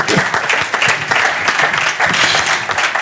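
An audience breaks into sustained applause, a dense, loud wash of many hands clapping steadily for about three seconds, with no one speaking over it.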